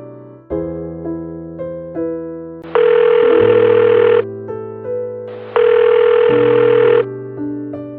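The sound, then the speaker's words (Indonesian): Two long, steady electronic ringback tones from a phone line, each lasting a few seconds with a pause between, layered over soft sustained background music. No one speaks. “Aku tahu, aku tahu kamu pasti bingung karena aku telepon kamu tiba-tiba kayak gini.”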